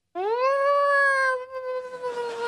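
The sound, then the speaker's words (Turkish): A voice imitates a blue whale mating call: one long, loud moaning howl that rises, holds steady for about two seconds, then wavers and fades slightly toward the end. “Mavi balinanın çifte eş çağırma sesi bu.”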